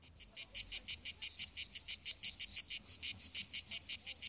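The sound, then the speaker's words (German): Cicadas sing in a steady, rapid pulsing buzz, about five bursts per second, loud, with no voices or other sounds. “das sind Zikaden.”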